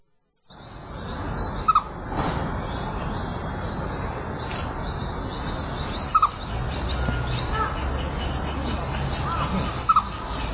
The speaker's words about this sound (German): Hier ist noch ein, ein äh, Video, das äh, laut äh, Titel das äh, Geräusch eines äh, Eichhörnchens äh, zeigt. Soll ich das mal abspielen?